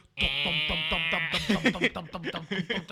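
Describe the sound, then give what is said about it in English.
A voice imitates the loud exhaust of a modified motorcycle: a buzzy, rattling drone with a rapid pulsing throb for about a second, then breaking into choppy sputtering bursts. “Bro, they had exhaust like it's like.”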